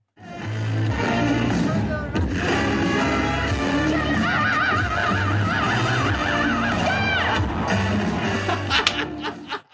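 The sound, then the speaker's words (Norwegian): A high falsetto voice shouts the name of the festival, Coachella, and wails with a wavering vibrato over a loud, steady roar from the large outdoor festival crowd that fills the whole stretch. “Det ble litt brus, ja, fra publikum ja, altså, der.”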